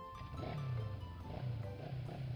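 A motorcycle engine revs with a deep, throaty growl that rises and falls in a few surges, loud, with no voices over it.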